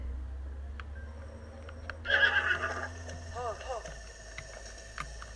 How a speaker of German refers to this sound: Da sind Pferde. Ganz viele Pferde.